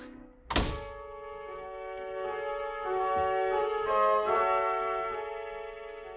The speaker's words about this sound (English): I pushed another button, anyone at random. The door was released and I was in.